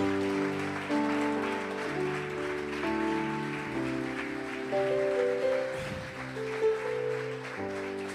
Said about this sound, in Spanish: Si le damos un fuerte aplauso al Señor, por favor.